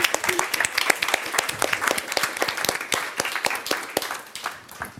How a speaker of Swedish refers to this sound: Så jag tycker vi ger en stor applåd till dem också.